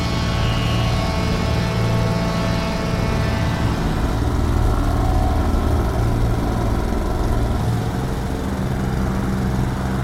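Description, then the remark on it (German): A lawn mower engine, recorded in an allotment garden colony in the north of the city, runs steadily and loudly throughout with a constant droning hum and harmonic buzz, uninterrupted, with no voices. “Für ihre Kompositionsserie über spektrale Rasenmäher ergänzte sie Mauris Field Recordings um eigene Aufnahmen aus einer Schrebergartenkolonie im Norden der Stadt.”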